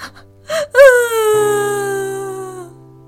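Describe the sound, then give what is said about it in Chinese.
A short sobbing gasp, then a loud, drawn-out wailing cry that breaks in high, slides downward and holds for about two seconds before trailing off. A person is imitating the storybook character Botitu (波提图) bursting into tears. “只不过这时候的波提图再也忍不住了，他放声大哭。”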